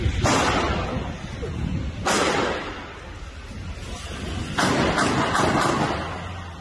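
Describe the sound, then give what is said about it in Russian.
Six sharp gunshots ring out at uneven intervals, two spaced apart and then four in quick succession, over a constant rumbling background, heard in video footage of a knife attack in Norway. “После этого на видео слышны шесть выстрелов.”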